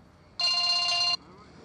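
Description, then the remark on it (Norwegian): A single loud electronic telephone ring, a bright buzzing tone lasting under a second before cutting off abruptly, heard alone over a quiet background; the lawyer calling Eivind Berge on Thursday. “Torsdag ringte advokaten til Eivind Berge.”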